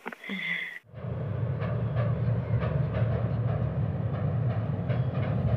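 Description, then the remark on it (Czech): A special, unscheduled transport train rumbles steadily along the rails with a dense low roar and faint repeated clacks, preceded by a brief tonal squeal in the first second. No voices are heard. “Tento vlak, který, kterým jsme jeli do Nezláma, samozřejmě byl vlak mimořádný, ne podle jízdního řádu.”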